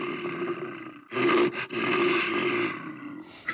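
A deep, loud bear roar rumbles for a few seconds, surging in two strong bursts before trailing off into a throaty growl, with no talking.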